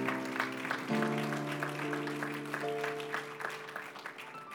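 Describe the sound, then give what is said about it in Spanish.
An audience at a church service applauds the Lord with steady, rhythmic clapping over sustained keyboard or organ chords, holding a fairly even loudness throughout with no one speaking. “un aplauso fuerte al Señor porque Él es bueno.”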